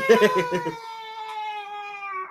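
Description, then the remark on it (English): Children's voices: a short burst of lively, high-pitched chatter gives way to one long, drawn-out squeal that holds steady for about a second and a half, moderately loud. “Did you guys hear those children?”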